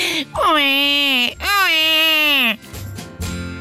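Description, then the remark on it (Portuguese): A baby girl cries in two long, loud wails, each high-pitched and quavering before sliding downward, with a brief gasp between them and a short whimpering tail at the end. “Comecei a usar fones para ver os meus filmes e vídeos no YouTube, e aqui para nós era uma forma de não ouvir tantas vezes aquele ué, ué,”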